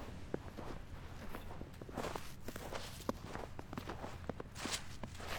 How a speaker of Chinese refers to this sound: 我们现在踩过了一片，就是又有落叶，然后又有雪的地方。我最喜欢踩焦的落叶和雪。